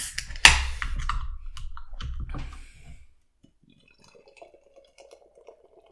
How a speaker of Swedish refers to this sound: Lyssna nu när vi häller upp våra öl. Mm. Det kan vara avsnittets höjdpunkt.